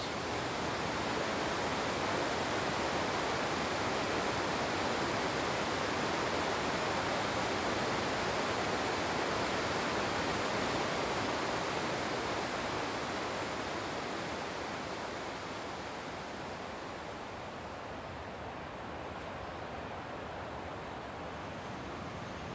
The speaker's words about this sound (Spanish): Este aquí, por ejemplo, es un riachuelo del que sacamos el agua para regar, que normalmente apenas es pues, un, un poquito de agua, suficiente, digamos. Pero ahora está, esto es como los rápidos,